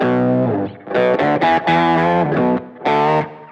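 An electric guitar run through an octaver pedal plays a short phrase of sustained notes with a thick, deep doubled tone and a gritty edge, loud with brief gaps between notes.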